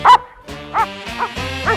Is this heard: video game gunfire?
no